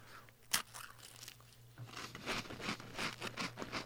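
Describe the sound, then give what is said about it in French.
A single crisp bite into the corner of a cracker while tasting a food product on it, followed by a couple of seconds of steady crunching and chewing, heard alone with no talking, like intimate mouth sounds captured right at the microphone. “Avec le bruit de SMR dans le micro.”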